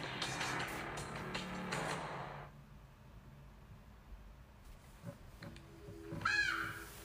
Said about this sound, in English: Crow's a bit much, do not you think?